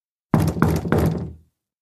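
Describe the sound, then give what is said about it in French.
Three firm knocks on a wooden door in an even rhythm, loud, with a short resonant decay after the last one and no voices. “on frappa à nouveau à la porte.”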